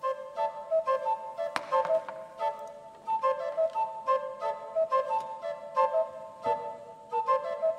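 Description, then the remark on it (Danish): Several recorders, fed air through long rubber hoses from air valves and lying jumbled on a floor, sound at once. Small round stickers cover their holes to tune them to different tones. Each holds its own steady pitch and pulses in uneven, overlapping rhythms, with a few sharp clicks among the tones and no talking. “Så lægger hun dem hulter til bulter ud på gulvet, hvor de ligger og fløjter hver sin tone og rytme.”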